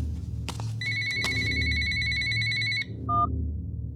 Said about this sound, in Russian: Звук будильника из телефона уносится во мрак. Ага, Время вышло, пора назад.